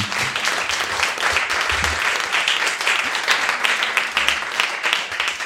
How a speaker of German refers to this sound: Kurzen Applaus bitte für den